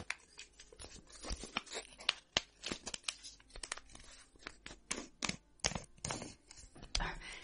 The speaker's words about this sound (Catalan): en veure el nom del seu germà al sobre – va obrir-lo i va llegir en silenci.